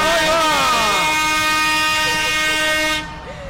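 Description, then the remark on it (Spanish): A tractor's horn, sounded by the tractor behind Radio Marca, holds a loud, sustained, steady brassy chord for about three seconds before cutting off abruptly, with faint background noise remaining. “Que pite, que pite. A ver, el del tractor detrás de Radio Marca, mira cómo pita.”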